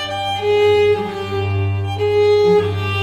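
A violin imitates the cooing of a European turtle dove as written by Vivaldi, with soft, repeated purring phrases in a gentle rhythm over a sustained low string tone, with no talking.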